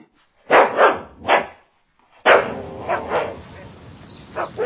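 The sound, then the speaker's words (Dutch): Several loud dog barks in quick bursts, a pair and then a single bark, followed after a pause by a sharp bark and more yaps over a noisy, rustling background. “Zullen we de honden uitlaten?”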